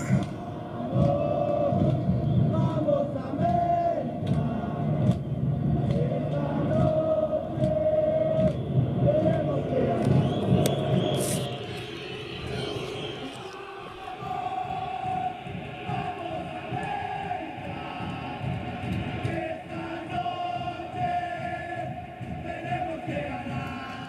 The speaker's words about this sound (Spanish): Nos despedimos con el Vamos América que así se escucha en el estadio.